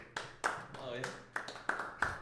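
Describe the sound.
A handful of weak, uneven hand claps, six or so sharp slaps spaced irregularly, with some voiced sound mixed in between them.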